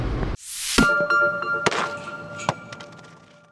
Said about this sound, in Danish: Mens øh, vi kigger ud af frontruden her, vinduesviskerne pisker.